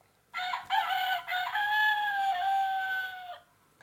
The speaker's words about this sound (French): Le jour se lève sur la ferme. Le coq chante.